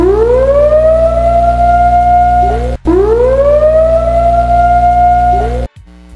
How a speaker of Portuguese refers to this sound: Sirenezinha tocada, cara se você está ainda me ouvindo e não quer um spoiler mais agressivo do que só o geral do episódio, eu indico que você veja outro capítulo do nosso podcast, que agora o, o spoiler vem, vem pesado, tá?